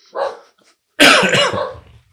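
A dog barks twice: a short, softer woof followed after a pause by a louder, longer, harsh bark that trails off. No one speaks.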